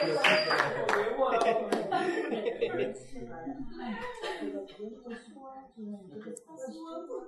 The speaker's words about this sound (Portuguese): Quem vai aplaudir o heroísmo aqui do Cavaleiro é...